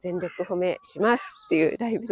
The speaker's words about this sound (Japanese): あ、ちょっとカラスがうるさいですね。